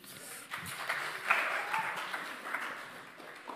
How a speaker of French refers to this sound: Ah, du coup, on a un volontaire. Bravo, on applaudit